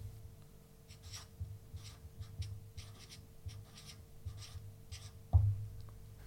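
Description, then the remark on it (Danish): Pen or pencil scratching across paper in short, irregular strokes, soft and steady, as someone writes the question "What does my gender mean for the law?", ending with a sharper tap or thump near the end. No one speaks. “Kan du ikke lige prøve at læse op, hvad det er, du har skrevet?”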